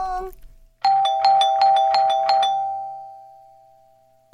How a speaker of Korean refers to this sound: 띵동, 띵동, 띵동, 띵동.